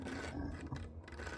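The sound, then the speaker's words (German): Steady, rasping scratching on wood that continues without a break for the whole moment, fairly loud, with a low growling undertone beneath it and no voices. “Es hört sich so an, als ob auf Holz gekratzt und eine Art Knurren währenddessen ausgelöst wird.”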